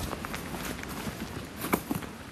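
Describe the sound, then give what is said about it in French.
Footsteps crunch and rustle through dry fallen leaves in autumn, a handful of uneven steps at a relaxed walking pace in a landscape refreshed by rain with the sun back out, over a soft, continuous outdoor background. “C'est assez agréable cette déambulation dans les feuilles mortes, parce qu'on est dans un paysage qui est rafraîchi par la pluie, alors que le soleil est revenu.”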